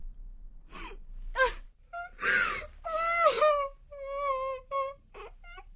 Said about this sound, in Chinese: 一天，从院长室里传出了一阵女子的哭声。